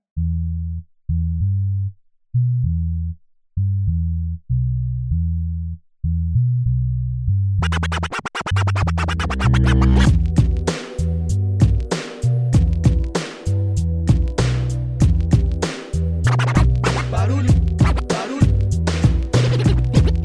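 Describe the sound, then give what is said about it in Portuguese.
A short instrumental intro jingle: staccato low synth notes pulse alone at first, then a loud, full beat with punchy drums and DJ-style scratching kicks in and drives to the end. “Vamos chamar a vinheta que na volta Nobru apresenta ela.”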